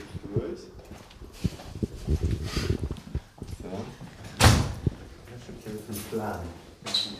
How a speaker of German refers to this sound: Rechts. So, da öffnet sich eine Tür. Ein gekachelter Raum.